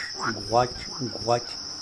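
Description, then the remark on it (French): Two moderately loud frog croaks, about a second apart, rise over a steady high-pitched insect trill that drones continuously in the background. “Il y a de la grenouille un peu, hein. il y, a un peu de grenouille. grouac”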